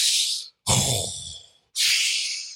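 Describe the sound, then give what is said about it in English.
A person imitates a basketball player's heavy, exaggerated breathing before a free throw: three loud, breathy bursts, the middle one a deep, rumbling inhale-exhale, separated by brief pauses. “the breathing and the and the multiple dribbles and I'm just like, bro, you don't need to do all of that concentrating.”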